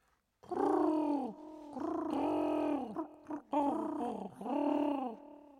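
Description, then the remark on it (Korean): Several throaty, rolling coos in a few sustained bursts, like a flock of pigeons in Australia cooing as they swarm to eat dropped pieces of hot dog, fairly loud; the cooing seems to be a human voice imitating the birds. “어디선가 한 무리의 비둘기떼가 몰려와가지고 그걸 주워 먹는다고 난리 난리.”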